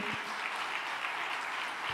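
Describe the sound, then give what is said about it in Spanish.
Steady applause from a crowd, a dense, continuous wash of many hands clapping at an even level throughout, with no voices standing out above it. “¿Cuántos están de acuerdo conmigo y le dan el aplauso fuerte?”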